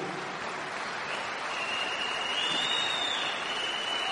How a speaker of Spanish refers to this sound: La pone una corporación que se llama Amway, ¿no? a, la, la cual hay que, la cual hay que aplaudirle.